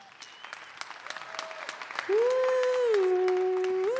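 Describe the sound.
An audience claps steadily for a performer on stage in a dense, crackling wash of applause; about halfway through a sustained voice comes in over the clapping, which carries on underneath.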